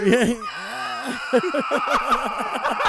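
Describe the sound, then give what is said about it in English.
A voice mimics a screeching, demonic growl: strained, raspy vocal bursts that rise and fall in quick repeated pulses, fairly loud, with a chuckle-like quality. “the growl, demon growls.”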